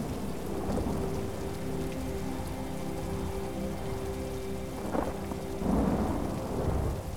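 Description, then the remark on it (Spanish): Steady heavy summer rain hisses and patters throughout, with deep rumbles of thunder rolling in the low end and a louder surge near the close; no voices. “Si somos naturaleza, qué equivaldría una tormenta de verano en un ser humano?”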